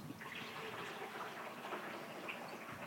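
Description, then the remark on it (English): A steady rush of gushing water, like a river flowing, holds at an even loudness for about three seconds with no pauses and no voices. “that sounded like the Smith River flowing through the mm. podcast”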